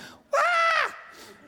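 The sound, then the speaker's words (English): A person vocally imitates the shriek of a spirit leaving someone set free on a Sunday morning: one loud, high, strained cry lasting about half a second with a bending pitch, followed by a softer trailing breathy tail. “When someone gets set free, and I've had this happen before, and, it, and the spirit leaves with a shriek on Sunday morning,”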